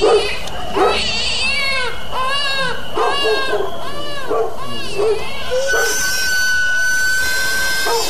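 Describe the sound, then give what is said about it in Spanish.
A baby cries loudly at night in repeated wailing bursts, each cry rising and falling, after being woken by the whistle of a sweet potato vendor. The vendor's steady high whistle joins in near the end. “Nos asusta y despierta al bebé y al perro.”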